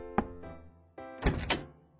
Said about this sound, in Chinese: 房门应声而开